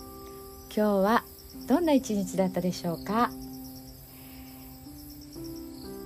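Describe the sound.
Cicadas and autumn insects chirp steadily outdoors, recorded on a balcony on 3 September after rain has stopped, in cool weather, a soft continuous high-pitched trill running throughout while someone speaks briefly over it.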